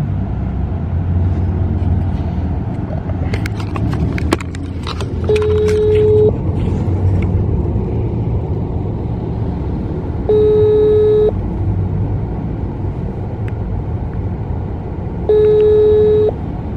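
A phone ringback tone repeats three times as a call is placed to a friend from inside a car, each ring a steady buzzy tone about a second long with pauses of several seconds, over a constant rumble of car interior noise.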